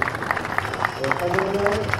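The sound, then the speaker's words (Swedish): A crowd applauds the rescue service and ambulance crew after a patient is freed from a car wreck and made ready to load into the ambulance: steady, dense clapping with a few sharper claps, voices and cheering mixed beneath, growing slightly fuller toward the end. “Och nu är det en stor applåd till räddningstjänst och ambulansen.”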